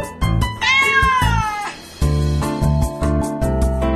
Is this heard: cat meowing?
yes